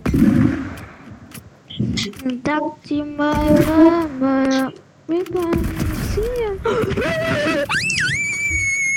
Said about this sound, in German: Der Schrei am Ende einfach legendär.